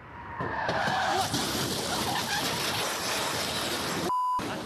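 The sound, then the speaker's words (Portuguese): A car speeding at very high speed on a highway in the Belo Horizonte metropolitan region skids, tires squealing over a loud, continuous roar of rushing noise, and crashes into a low wall at a pedestrian footbridge, filmed on a mobile phone, before the sound cuts out abruptly with a brief beep near the end. “Me deparei com o carro na minha frente em altíssima velocidade e logo já saí correndo, levantei o celular e ele bateu nessa mureta atrás de mim.”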